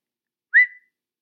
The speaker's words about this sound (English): and there's no verbal answer, but we do get a whistle.